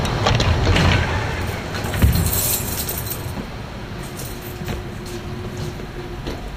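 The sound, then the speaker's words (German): A tram driver opens a door of his tram with a metallic clunk and rattling shortly before 5 a.m., set against steady rumbling background noise in a large, echoing hall. No one speaks. “Herr Malkowski öffnet eine Tür der Bahn.”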